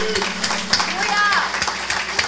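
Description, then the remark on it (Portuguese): A church audience claps for God during a service in a dense, irregular patter of sharp hand claps, fairly loud throughout, with voices calling out over the applause and a low steady hum underneath. “Vamos dar uma salva de palmas a Deus.”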